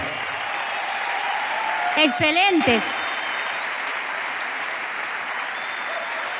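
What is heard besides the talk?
audience applause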